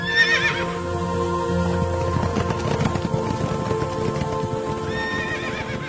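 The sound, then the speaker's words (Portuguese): Horses whinny loudly at the start and again near the end, while a steady clatter of many hooves and rolling wheels fills the scene, as four war chariots, pulled by red, black, white and bay horses, charge out. “estavam saindo quatro carros de guerra. O primeiro carro era puxado por cavalos vermelhos, o segundo por cavalos pretos, o terceiro por cavalos brancos e o quarto por cavalos baios.”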